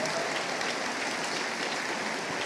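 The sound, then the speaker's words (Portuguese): Steady applause from a church audience at Poema Church welcoming the speaker, a dense wash of many hands clapping at an even level throughout, with no voices standing out. “Eu já falei quando vocês aplaudem, eu fico se achando, mas dura pouco.”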